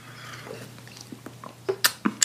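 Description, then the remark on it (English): Soft sipping and swallowing of water, with a few wet mouth clicks bunched toward the end over a quiet steady hum; no one speaks. “So um, let me take another sip of water.”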